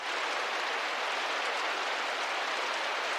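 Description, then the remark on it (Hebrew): Heavy rain pours down steadily, a dense, continuous hiss of water that stays loud and even throughout, with no voices over it. “ובאותו היום ירד גשם שוטף, שפע של מים, שאללה העניק למוסלמים.”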